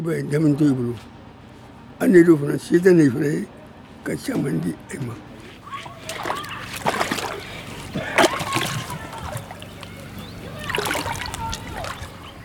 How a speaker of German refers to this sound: hält einen gelben Kanister in den Fluss, lässt ihn voll Wasser laufen. Der schmale Fluss ist fast ausgetrocknet, der Boden von der Sonne verbrannt.